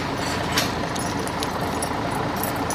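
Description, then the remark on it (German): A bunch of keys jangles in a few brief, bright metallic clinks spread over a couple of seconds as someone searches for the right key, sitting on top of a steady low rumbling background with no one talking. “Zurück zur mobilen Sanitätsstation, diesmal mit Schlüsselbund. Jetzt nur noch den richtigen finden.”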